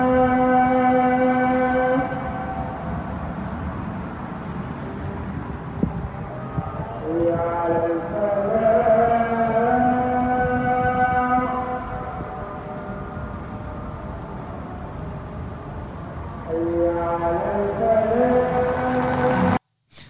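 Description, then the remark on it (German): A muezzin's call to prayer, given five times a day, rings out over a loudspeaker, long wavering sung phrases separated by pauses filled with steady street background noise of people on the pavements and passing cars. “Dann ruft dir der Muezzin fünfmal am Tag zum Gebet und das hört sich so an.”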